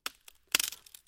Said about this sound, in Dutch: Jullie kennen allemaal het geluid dat je hoort als een dorre tak in twee breekt.